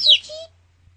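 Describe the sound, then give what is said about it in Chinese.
A single short, high-pitched chirp from a small bird, sweeping downward and lasting about half a second, then silence. “小鸟的叽叽声，使山猫一嘴口水。”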